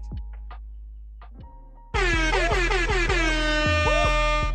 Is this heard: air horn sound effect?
yes